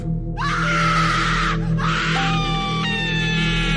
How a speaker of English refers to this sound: Suddenly, I saw my wife screaming on top of her voice. The children was also equally terrified.